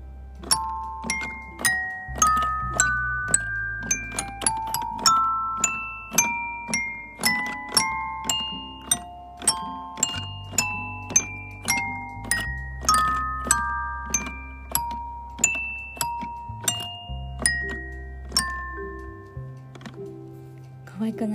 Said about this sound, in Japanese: トイピアノのこの音が好きで今キラキラ星弾いたんですけど今これしか弾けないんですけど なんかね毎日夜一人でこれをこっそり弾くっていう ちょっとまあから見るとちょっと暗い子みたいなんですけどすごい音に癒されてるんですよね。